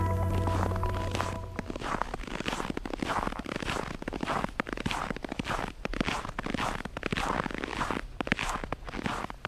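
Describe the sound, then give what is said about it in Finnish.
Steady footsteps crunch through snow at a walking pace. Each step is a gritty squeak-crunch repeating about twice a second, preceded by a brief tonal chime at the start. The sound is played on Finland's Radio Suomi. “Täällä Radio Suomessa narskuu taas lumi askeleen alla ja se tarkoittaa sitä, että Luonto Suomen lumiilta jatkuu tästä eteenpäin aina kello 20 saakka.”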